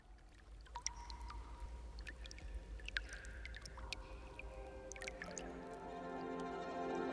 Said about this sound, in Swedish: Det är i alla fall säkert att där ute på åkern i Storkyrå, där Levanluhta ligger, där fortsätter det rostbruna vattnet att sippra fram. Det som gör att källans vatten, ibland om vårarna, ser nästan rött ut.